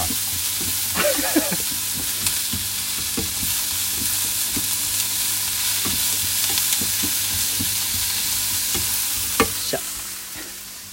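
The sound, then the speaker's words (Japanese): Green bell peppers being stir-fried in a pan: a steady sizzle with repeated scraping and clacking as a utensil tosses the food, no voices present. “色が変わったらピーマンを投入しますやべ片手が塞がってるとやりにくいピーマン入れた炒めていくこれ聞いてて楽しいかな”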